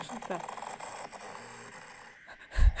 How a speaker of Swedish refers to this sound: Snark. Snarkning. Ja, det är en snarkning. Det är så vanligt.